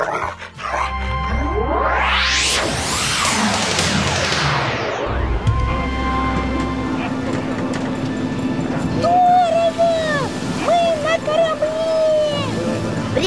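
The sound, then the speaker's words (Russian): Timbers and masts of an old sailing ship on the Northern Dvina river creak in drawn-out, groaning bends over a roaring stormy wash of wind and waves, with a deep rumble underneath. “причем старинном, с парусами. Ух ты, как мачты скрипят. Штормит.”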